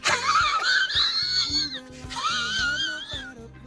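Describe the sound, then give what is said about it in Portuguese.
Two long, whistling wheezy breaths from a person with asthmatic bronchitis, each a strained high-pitched rasp lasting over a second, loud with a rhythmic low rumble underneath. “os, os, ouvintes não devem reparar que você tem bronquite asmática, mas eu quando é, eu tenho de quando eu dou...”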